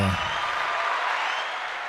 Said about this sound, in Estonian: ma panen ikka aplausiga.